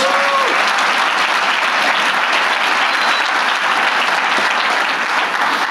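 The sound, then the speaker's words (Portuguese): A church audience breaks into sustained applause for Jesus, a dense, steady wash of many hands clapping at an even loudness throughout, with a faint tone or cheer briefly rising at the start. “Se você crê nisso, dê uma salva de palmas a Jesus.”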